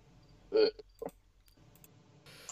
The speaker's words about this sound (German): Kannst du aufhören zu rülpsen hier? Das war ja. Asozial.